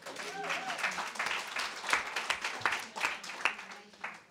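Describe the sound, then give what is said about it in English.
An audience applauds steadily for about four seconds, a dense, crackling wash of many hands clapping at moderate loudness, with a faint voice mixed in near the start. “A round of applause.”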